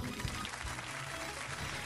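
A short burst of audience applause, steady and dense clapping filling the whole moment without any voices over it.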